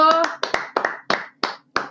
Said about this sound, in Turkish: Yönetmene bir daha bir alkış alabilir miyim? Alfonso!